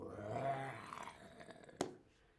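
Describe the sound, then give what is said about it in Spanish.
A lion's low, rumbling roar swells for about a second, then trails off into a throaty growl, followed by a brief sharp click; no voices, fairly quiet overall. “Muy bien, muy muy bien los leones. Los leones rugen, el rugido.”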